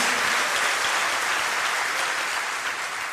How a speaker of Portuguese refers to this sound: Pode celebrar por isso, pode dar palmas por isso, pode dar glória a Deus por isso.